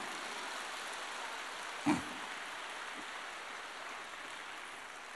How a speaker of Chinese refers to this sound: 根据你们的掌声来判断，现在有很多人已经开悟了